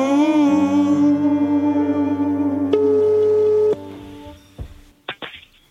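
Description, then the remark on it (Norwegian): An electronic telephone ringing tone sounds through the line, steady and clear for a few seconds, then cuts off into faint clicks and handling noise as the call to the callers' mother connects. “Jeg tenker vi tar en eh, telefon og sjekker hvordan det står til i Stigen 6.”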